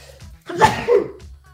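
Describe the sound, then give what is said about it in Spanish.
A single sharp sneeze, a quick explosive blast with a brief second push, from a person with something like an allergy, with no talking around it. “mil disculpas, tengo una como alergia.”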